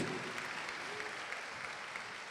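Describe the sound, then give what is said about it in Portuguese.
A crowd claps steadily in applause to the Lord, a dense wash of many hands applauding at moderate volume throughout, with faint voices blending into the background. “Quer aplaudir ao Senhor?”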